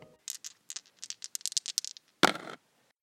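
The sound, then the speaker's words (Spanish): Dice rattle in a quick, irregular clatter of small clicks, then a louder shake-and-roll burst before settling, with no voices. “Es momento de lanzar los dados y cayeron en”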